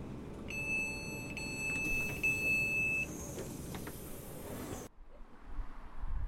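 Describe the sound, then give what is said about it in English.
Strong wind buffets the microphone over a constant roar of passing traffic on Wandsworth Bridge over the Thames in London, while a high electronic beep sounds steadily through the first half; the noise then drops suddenly to a quieter rumble. “Well, I've just got off a very windy, noisy, and busy Wandsworth Bridge in London going over the Thames towards Fulham in the southwest of the capital”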